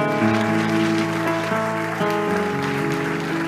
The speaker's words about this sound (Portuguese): Obrigado, Jesus a esse forte aplauso ao Senhor Jesus.